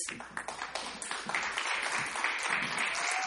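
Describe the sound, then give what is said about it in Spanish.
An audience applauds a band at a concert in the City of Palaces (Mexico City), a dense wash of many hands clapping at once that builds slightly and holds at a fairly even, moderate level throughout, with no voices standing out. “Se escucha el aplauso para ….”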